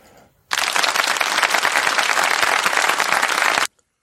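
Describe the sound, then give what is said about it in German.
A burst of applause from a crowd, played in as a sound effect, starts abruptly, holds steady and dense for about three seconds of continuous clapping, then cuts off sharply. “Kannst du kurz Applaus noch einspielen, Axel, bevor wir, bevor wir weiter über Freiburg reden?”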